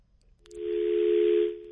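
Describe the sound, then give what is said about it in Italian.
A single steady telephone line tone sounds for about a second over a wash of line hiss, preceded by a faint click and cutting off abruptly, after a caller's phone-in call drops. No one speaks. “Caduta, ne aspettiamo ancora.”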